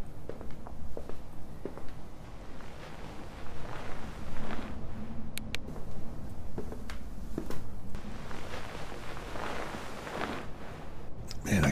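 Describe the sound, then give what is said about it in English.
Irregular footsteps crunch and tap through a dense, rustling outdoor background, a handful of sharper steps standing out midway, not loud. “have sworn I heard footsteps.”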